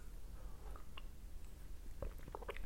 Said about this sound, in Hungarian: Bocsánat, iszok egy kortyot.